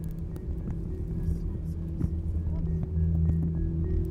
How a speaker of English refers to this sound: It's a lot of cars.